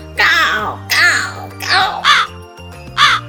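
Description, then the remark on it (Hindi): A voice loudly imitates a crow shouting into a sparrow's ear, letting out five harsh, rasping caws in a quick, uneven series, each burst short, with a faint steady hum underneath. “कौवे को शरारत सूझी वह एकदम चिड़िया के कान के पास जोर से जाके चिल्लाया”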